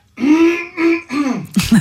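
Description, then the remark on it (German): A person clears their throat, three or four voiced, rumbling bursts in quick succession ending in a rougher, harsher rasp, with no talking. “Räusper die mal.”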